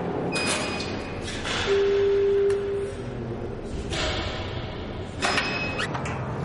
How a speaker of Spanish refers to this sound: En una cárcel, un preso y un guardia atraviesan una reja del pasillo. El funcionario aprieta el timbre de otra reja.